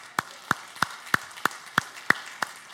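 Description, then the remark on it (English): Steady, rhythmic clapping from a church audience during a service: about nine sharp claps at an even pace, roughly three per second, with no voices. “We can clap for that.”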